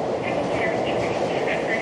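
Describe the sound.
Steady, fairly loud rumble of a subway train in a subway station where a KBS morning news reporter is reporting live, a continuous roar with faint murmuring voices mixed underneath.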